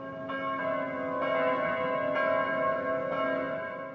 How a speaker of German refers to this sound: und kamen heim und es fängt auf einmal die Glocke der Heimatkirche an zu läuten und ihnen rinnen die Tränen runter